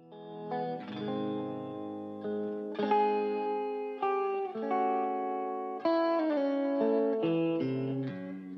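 An intense, western-flavored ballad plays steadily, with long sustained chords shifting every second or so, a thick, effects-laden guitar-like tone, and no voices over it.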